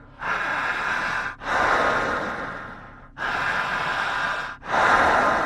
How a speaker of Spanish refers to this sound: Fuerte la respiración. Jalando el aire, seguridad.